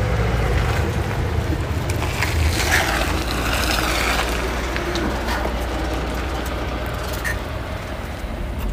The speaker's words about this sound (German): Und tatsächlich warten wir auf unseren Igelbus nur wenige Minuten. Da kommt da unser Bus.